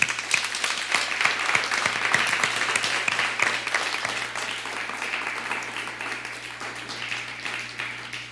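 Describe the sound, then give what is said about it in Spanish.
Sustained applause from an audience, many hands clapping in a dense, steady wash that stays fairly even for several seconds before easing slightly, with a low steady hum underneath. “Damos un fuerte aplauso a Susana Santillán desde Argentina.”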